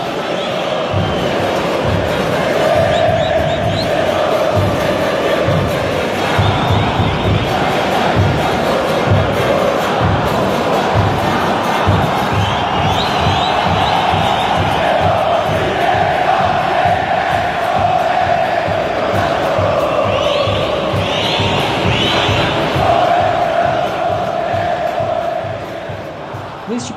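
A large crowd of Guarda Popular, the supporters' group of Internacional, chants together in a stadium, a loud, sustained mass of voices with rhythmic drum-like pulses underneath, continuing steadily for the whole stretch.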